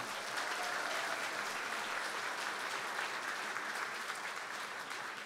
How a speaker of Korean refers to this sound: 매번 우리 RUTC 방송국이 또 전도자 여러분들을 위해서 많은 어, 헌신을 해주고 계신데요. 우리 격려의 박수 한번 부탁드리겠습니다.